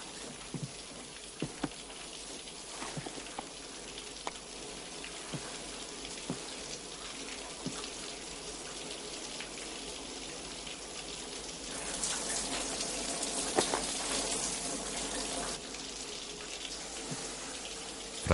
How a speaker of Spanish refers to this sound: se ducha arriba en el cuarto de baño.